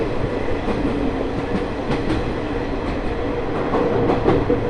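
The Ai Yoshinogawa sightseeing trolley train on the Tokushima Line, running from Awa-Ikeda to Sadamitsu, rolls steadily along the rails. Its dense low rumble is broken by faint rhythmic wheel clicks over the track joints, with no one speaking.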